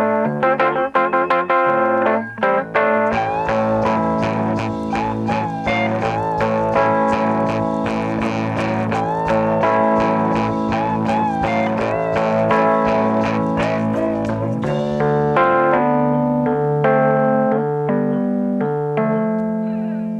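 A Rhodes electric piano, then brand new, plays sustained, chordal passages with a murky, swampy effect that thickens and slightly distorts the tone. Loud and continuous, with no voices.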